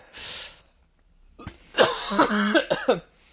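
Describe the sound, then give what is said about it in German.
A sharp breathy gasp, a brief pause, then a loud burst of harsh, strained coughing in several rapid, voiced spasms from someone who has swallowed something the wrong way. “Ich habe mich verschluckt.”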